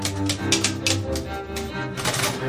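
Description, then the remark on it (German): Keys of an old Triumph typewriter, slightly sticking, clack in an uneven sequence, several sharp strikes, some sounding a little stiff, over a low background hum. “Die hat auch ihre Jahre hinter sich. Hier hakt auch ein bisschen.”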